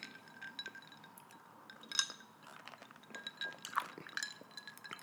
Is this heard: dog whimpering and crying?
no